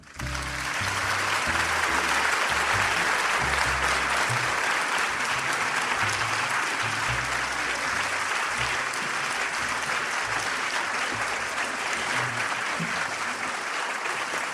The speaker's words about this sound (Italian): Allora, professore, l'applauso dice che io non la devo presentare, ma insomma, qualche cosa diciamo.